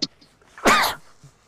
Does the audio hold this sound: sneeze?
yes